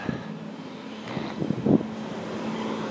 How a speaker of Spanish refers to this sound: con estos motores de automóviles que se vuelven nuestro recordatorio diario, diario de cada día de, de saber que, estamos vivos, que podemos arrancar motores